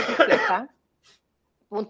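A hearty cough bursts out, followed after a short pause by a faint breath and then a second, briefer cough. No talking accompanies it.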